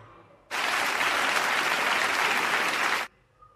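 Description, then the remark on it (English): A burst of audience applause, many hands clapping densely and steadily at a loud, even level for about two and a half seconds, then stopping abruptly. “That's enough for 100 clapping.”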